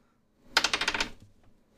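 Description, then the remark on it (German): A small die, rolled to decide a football prediction, clatters across a hard tabletop in a quick run of about eight sharp clicks that bounce rapidly and fade out within half a second, with no voices. “ich habe hier einen kleinen Würfel.”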